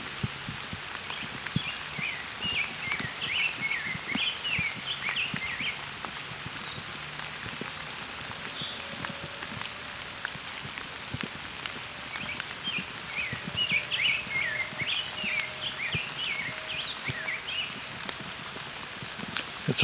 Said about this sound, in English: So as you can hear, it's raining a bit. But I've got a rose breasted grosbeak here singing.